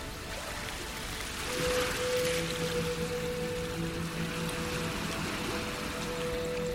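Sea waves wash against the shore in a steady rushing hiss that swells once early on, with a faint, steady low hum running underneath and no voices.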